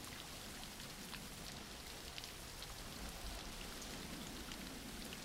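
Steady rain falls continuously, a dense even hiss with scattered droplet taps and patters spread across the whole stretch, with no voices or other sounds.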